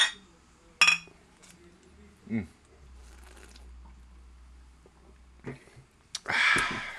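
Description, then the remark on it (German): Beer glasses clink together in a toast: a few sharp knocks spread out over several seconds, then a brighter ringing clink near the end, over a low background hum. “Ich trinke nochmal einen Schluck Bier. Ja, so. Prost. Prost. Prost, Theresa. Prost.”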